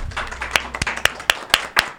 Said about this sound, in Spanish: Y bueno, ellas son nuestras amigas de Esencia del Alma. Un aplauso, por favor, a estas chicas bellas